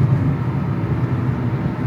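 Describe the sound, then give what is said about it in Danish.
A steady low rumble inside a car driving through Zealand, Denmark, with continuous engine and road noise at moderate level and no voices. “Normalt har du studiet for dig selv, men nu sidder vi her i en bil på vej igennem øh, det er Sjælland.”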